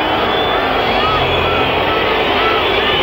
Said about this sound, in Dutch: Een enorm lawaai breekt nu los en oorverdovend gefluit.